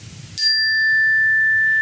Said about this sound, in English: we're going to start with three cleansing chimes.